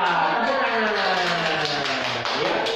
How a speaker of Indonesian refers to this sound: Tepuk Ya